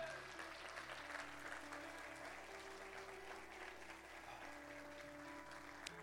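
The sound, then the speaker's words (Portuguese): An audience applauds Jesus steadily for several seconds, a dense wash of clapping with a low sustained tone, likely music or organ, running underneath. “Aplauda Jesus por isso.”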